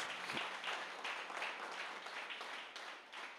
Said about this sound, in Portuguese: Você pode aplaudir o Senhor agora, em nome de Jesus, querido. Em nome de Jesus.